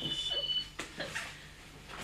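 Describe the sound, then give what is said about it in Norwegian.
A faint, high-pitched electronic ringing tone of an outgoing phone call warbles briefly at the start, then cuts off, followed by a couple of soft clicks and thumps. “Jeg ringer det. Tror jeg ringer.”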